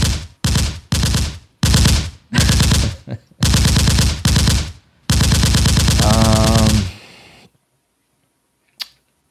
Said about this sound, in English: If it, if I if it's in New Orleans, it might be actual gunfire. This is New Orleans,